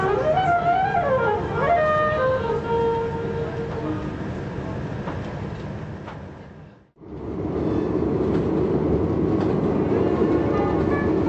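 A tram in Strasbourg, France, heading for Étoile Polygone, rolls along its rails with a steady, loud rumble and an electric motor whine that climbs and wavers early on; the noise briefly drops out, then the rolling resumes.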